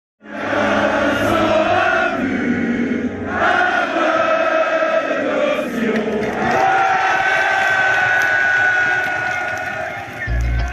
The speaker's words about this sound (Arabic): هنا نسمع حماس آلاف الجماهير في شارع شانزليزيه في باريس عقب فوز فرنسا بكأس العالم في مونديال روسيا عام 2018